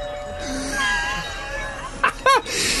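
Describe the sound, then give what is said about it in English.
A doorbell chimes twice in quick succession near the end, two short bright ringing tones after a stretch of faint tonal hum and background noise. “Paul, with your doorbell, how's the doorbell going?”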